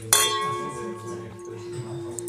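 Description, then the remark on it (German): Wine glasses clink together once in a toast, a bright strike followed by a clear, sustained ringing tone that lingers through the rest of the moment over faint room noise. “Machen einen schönen Sound, die Gläser.”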